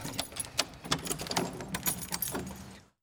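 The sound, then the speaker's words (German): A bunch of keys jangles and clinks continuously for a few seconds, with irregular bright metallic rattles, then stops abruptly; no one speaks. “Oh, das ist der falsche Schlüsselbund.”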